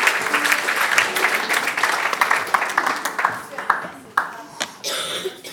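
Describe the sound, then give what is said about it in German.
An audience applauds together for Jesus during a Christian worship service, a dense spread of clapping that stays steady for a few seconds and then thins into scattered claps, with a little murmuring and coughing. “Gib ihm mal einen riesen Applaus und sag, danke Jesus, dass du mich frei machst und dass du es gut machst.”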